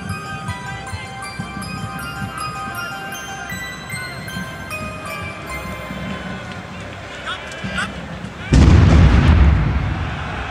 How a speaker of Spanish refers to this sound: A las 9 y 16 de la noche, una gran explosión azotó los alrededores del estadio.